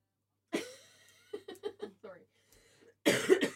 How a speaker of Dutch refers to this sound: je mag niet meer hoesten, hè? Dat weet ik.